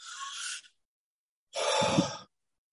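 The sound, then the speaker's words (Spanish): A person demonstrates breathing: a breathy intake of air lasting about half a second, a brief silence, then a fuller, slightly voiced exhale like a sigh. No talking. “El gran fallo que solemos tener cuando respiramos es que no aguantamos la respiración.”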